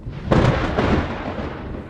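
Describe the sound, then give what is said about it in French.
A sudden, loud clap of thunder from a thunderstorm breaks out and rolls into a deep, sustained rumble that lingers without fading much, with no voices present. “Ok, et alors si jamais je suis pris dans cet orage et que je ne peux pas l'éviter, Comment peut-on éviter la foudre”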